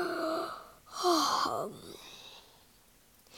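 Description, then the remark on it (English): A drawn-out, breathy yawn voiced by a person imitating a giant yawning, rising into a strained vocal stretch and then trailing off into a soft sigh, fairly loud. “Then he yawned.”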